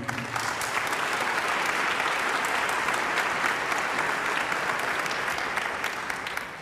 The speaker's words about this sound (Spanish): Eh, me pone muy feliz, me pone muy feliz porque hay grandes músicos, músicos que son como familia para mí, como por ejemplo dos de los músicos que van a tocar hoy que yo más respeto, este, como por ejemplo …, para que pido un fuerte aplauso.